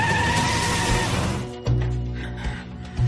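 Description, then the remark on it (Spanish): A woman gets into her car and drives away from a house: the engine turns over with a brief squealing whine, then settles into a low, steady rumble as the vehicle pulls away, with no voices. “Se monta en su coche.”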